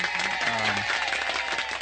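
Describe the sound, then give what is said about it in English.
Steady, dense applause from a crowd, many hands clapping at once in a loud, continuous wash of sound with a few faint tonal murmurs underneath. “Now there's the applause of the day yeah.”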